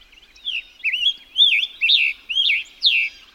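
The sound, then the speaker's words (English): A scarlet tanager sings a series of about six short, hoarse, burry phrases in a steady, robin-like cadence, clear with no other sounds or voices. “But there's one bird in particular that nearly every time its name comes up, you hear the word gorgeous the scarlet tanager.”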